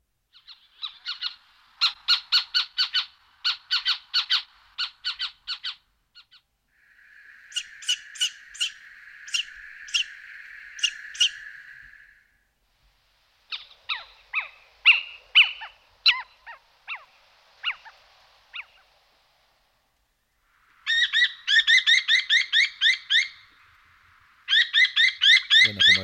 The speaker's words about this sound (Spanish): decíamos antes, estamos escuchando al mochuelo, el mochuelo europeo, el Atene Noctua, en asturiano conocido como ¿eh? miagón. Ese nombre que da por estos ah. miaguidos que se oyen, estas especie de maullidos.